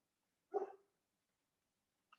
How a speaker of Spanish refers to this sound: Mira, hasta el perro ladró.